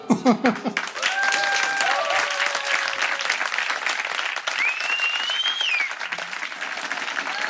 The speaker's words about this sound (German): Applaus